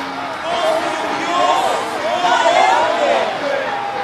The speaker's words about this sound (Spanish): El día señalado, Herodes, ataviado con su ropaje real y sentado en su trono, le dirigió un discurso al pueblo. La gente gritaba,